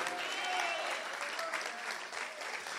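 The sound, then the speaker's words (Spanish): An audience claps steadily, a dense, sustained wash of applause that stays loud throughout, with faint voices and a few rising tones mixed into the noise. “Dale un aplauso fuerte al Espíritu de Dios.”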